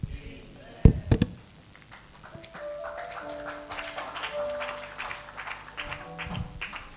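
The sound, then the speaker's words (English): A few sharp knocks, then an audience's scattered, uneven clapping for the Lord builds into a steady patter of many hands, with sustained keyboard tones underneath. “If you are clapping for the Lord, you can do better than that.”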